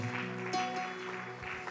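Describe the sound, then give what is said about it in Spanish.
A church audience applauds for God with steady, dense clapping that holds throughout, mixed with sustained musical tones underneath. “Con gratitud de corazón le brindamos este aplauso al único digno de recibir alabanza, adoración, honor y gloria.”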